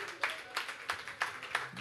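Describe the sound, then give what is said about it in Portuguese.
An audience claps for Jesus after a prayer, in a steady, even rhythm, about six sharp beats in under two seconds, with a faint murmur of voices underneath. “Dê mais uma linda salva de palmas a Jesus.”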